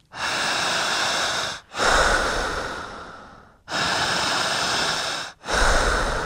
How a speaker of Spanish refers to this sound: Suelten los brazos, abran la boca, ojos abiertos porque, nota, no vamos a hipnotizar a nadie. Todavía no. Vamos a respirar. ¿Listos? Cuento tres y comenzamos. Uno, dos, tres.